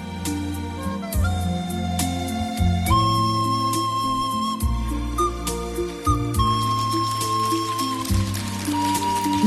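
Someone whistles a slow song melody, its steady held notes rising and falling clearly over a continuous low instrumental accompaniment, with no talking.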